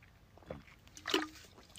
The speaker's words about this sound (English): Um, take a drink of water.